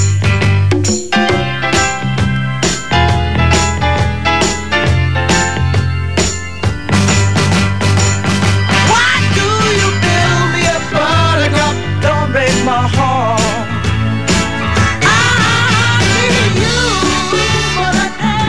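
A loud, upbeat pop song plays continuously on the radio station Mansfield 103.2, with steady drums, a driving bassline, bright brass-like chords and a singing voice carrying the melody.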